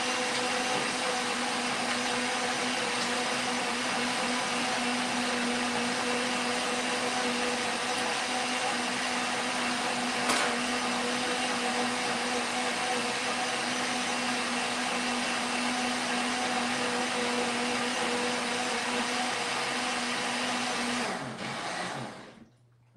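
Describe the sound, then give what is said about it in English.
A blender pulps small bits of rough paper to make pulp. It runs steadily for about twenty seconds with a loud, dense whirring roar and a constant motor hum, then winds down and stops near the end. No one speaks. “This will not gonna be a very nice paper, but we place it small bit in the blender, and now I will make a noise for 30 seconds.”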